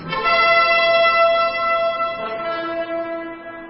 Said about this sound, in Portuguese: tocaram a corneta e o povo gritou: Viva o Rei Salomão!